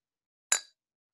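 A single bright clink of glasses touching in a toast over a beer being tasted, with a short ringing decay that fades within a fraction of a second; no one speaks.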